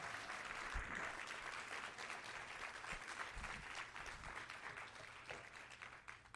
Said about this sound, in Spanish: ¿Cuántos pueden dar un aplauso fuerte en esta mañana al Señor?